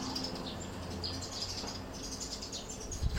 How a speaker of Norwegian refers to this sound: Lurer på om det kommer fuglekvitter på podkasten. Det hadde vært litt fint.